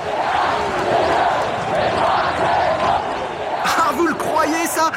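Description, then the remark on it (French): A delirious crowd chants "Et 1, et 2, et 3-0" and cheers as France becomes football world champion, beating Brazil 3-0, in a dense, sustained roar, rhythmic shouting swelling throughout, with sharper individual whoops and yells breaking out near the end. “Et 1, et 2, et 3-0 entonne la foule en délire.”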